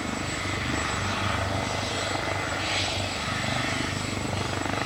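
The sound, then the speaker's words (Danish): A helicopter drones steadily, its rotor producing a loud, continuous low thumping with a broad whooshing wash over it, holding constant throughout with no voices. It is carrying band members on a flight to Odense, Denmark. “midt i orkanens øje, hvor hun bliver hentet af en helikopter.”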